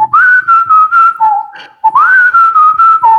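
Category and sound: sound effect, whistled melody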